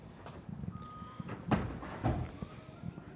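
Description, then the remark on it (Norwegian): A door slides open with two soft rumbling thumps, set against a steady indoor hum and a few faint high electronic tones. “Døra går opp.”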